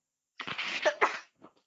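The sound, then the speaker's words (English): A single sneeze bursts out, a sharp breathy explosion followed by a couple of faint trailing sniffs or breaths. “Sorry. Bless you.”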